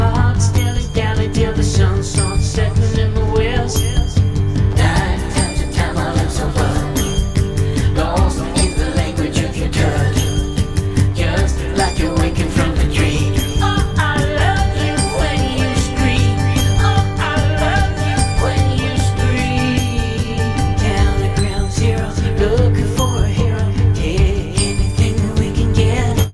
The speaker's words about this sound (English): shared the third single from his forthcoming self titled new album